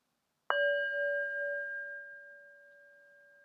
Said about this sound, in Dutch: En hoor je het geluid van de klankschaal als eindsignaal.